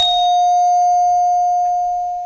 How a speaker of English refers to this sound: Now, how about this? if you play that bell five more times, it'll be three o'clock.